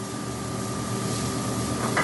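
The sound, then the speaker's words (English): Potatoes sizzle in a hot pan with a steady, dense crackling hiss that holds an even loudness throughout, with a brief brighter flare near the end and no voices. “Okay, so you hear that simmer kind of went down, right? Yeah. Hear that sizzle.”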